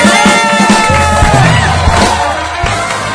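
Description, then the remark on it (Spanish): Loud, steady applause from a crowd for a contestant, mixed with scattered cheers and whoops over a musical backdrop, filling the whole few seconds without any talking. “Un aplauso para la participante, por favor.”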